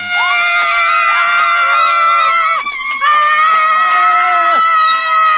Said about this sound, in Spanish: Bueno, ahí está para esa película y ganó la Cini. Entonces, ella gritó de la manera más sexy.